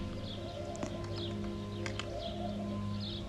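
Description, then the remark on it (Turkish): Birds chirp softly in short, repeated calls over a steady low hum, with a few sharp clicks mixed in. No one speaks. “Kuşların cıvıltısı hem bize yaşam enerjisi versin, keyif versin, neşe versin.”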